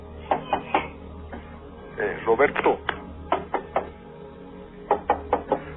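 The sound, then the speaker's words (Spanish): Someone knocks on a door in sharp bursts of three or four raps, pausing between groups, with a short spoken phrase in the middle. “Eh, por favor, abren la puerta. Voy a abrir la puerta.”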